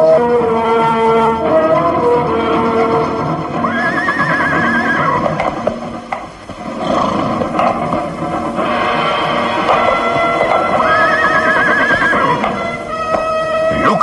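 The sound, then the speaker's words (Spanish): Horses whinny loudly, with long wavering neighs rising out of a dense mix of hoofbeats clopping steadily underneath, in a castle courtyard, as a saddled horse is led by its reins toward a nervous horse standing still. No one speaks. “Van Doren ha ensillado otro caballo y calándolo de las riendas avanza en dirección hacia su corcel detenido en el patio del castillo.”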